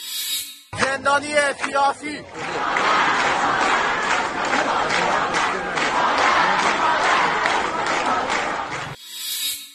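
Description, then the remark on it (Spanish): A protest crowd in Iran shouting slogans such as "death to the dictator" and "we want to take back Iran": one loud voice calls out first, then a dense mass of voices roars in, chanting in a steady rhythmic pulse that holds loud for several seconds before cutting off. “Hay un cantos de o gritos de muera el dictador, hay gritos de queremos recuperar a Irán, queremos que se acabe la República Islámica.”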